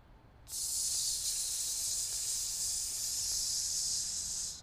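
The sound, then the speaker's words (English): A voice produces a long, steady hissing "sss" on one exhale, bright and sustained for about four seconds at an even loudness before fading at the end; it is the S sound made for the lungs. “Like dark gray turning into white, and you want to make the sound for your lungs is going to be”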